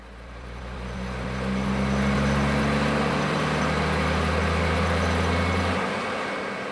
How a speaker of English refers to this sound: Recently, these seismic trucks, which generate sound waves, became the focal point of controversy when an energy contractor began work in Utah's Dome Plateau.